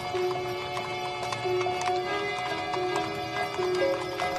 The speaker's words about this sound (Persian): صدای اسب حواسش رو پرت میکنه.